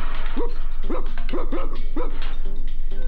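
A dog barks about five times in quick, fairly regular succession over the first two seconds, clear, then goes quiet against a steady low background hum.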